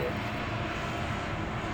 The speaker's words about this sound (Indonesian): Oke, sorry tadi ada pesawat.